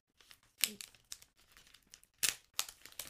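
Wrapping paper printed with white hearts crinkles and rips in quick, irregular bursts as a gift is torn open, a few sharper tears standing out among softer rustling, fairly quiet.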